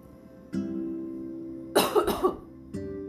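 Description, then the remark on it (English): A burst of several harsh coughs in quick succession, loud and raspy, from a person with allergies, over a steady low hum of background noise. “and I do apologize for my coughing but I can't help it.”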